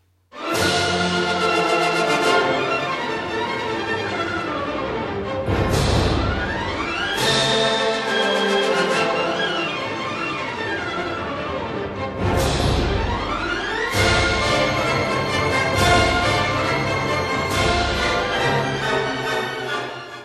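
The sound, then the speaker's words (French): Loud, full-bodied music plays steadily throughout, with rich sustained tones and strong accented hits recurring every couple of seconds. No voices are heard. “La musique arrive.”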